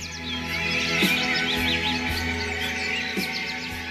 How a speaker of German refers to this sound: das Vogelgezwitscher, die begleiten uns auf unserer Schnuppertour.